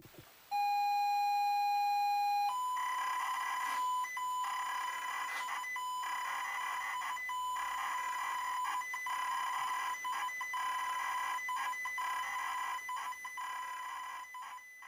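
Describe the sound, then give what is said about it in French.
A computer game loading from cassette tape: a loud, steady electronic tone opens, then shifts into a continuous harsh, buzzing data screech with rapid flickering interruptions, alone with no voices. “on peut le mettre 5 minutes si vous voulez. Hein, et puis on regarde si ça, si ça a chargé si vous voulez.”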